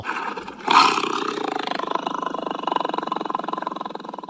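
A big cat lets out a loud roar that bursts in suddenly and then rolls on as a long, throaty, pulsing rumble for several seconds, with no talking.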